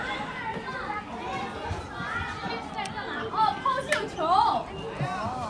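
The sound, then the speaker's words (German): Busy outdoor scene of children playing at a playground around a festival celebrated with traditional music, with overlapping kids' voices, shouts and chatter filling the air; a few high excited squeals rise above the steady crowd babble. “Das wird mit traditioneller Musik gefestet und es hat noch einen Spielplatz drumherum.”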